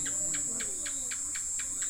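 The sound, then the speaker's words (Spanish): Crickets chirp at dusk in a steady, rapid rhythm, their bright pulses repeating about four times a second over a constant high insect drone, with no voices present. “La tarde muere y el canto de los pájaros es reemplazado por otro concierto, el de los grillos, insistentes en tomarse todo el protagonismo.”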